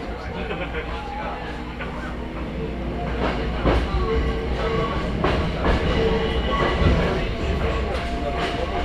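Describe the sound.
A Hakone Tozan Railway mountain train in Japan, running from Hakone-Yumoto to Ohiradai, rolls steadily along its tracks: a continuous low rumble with scattered clicks and clunks from the wheels, growing a little louder midway, with faint voices murmuring underneath.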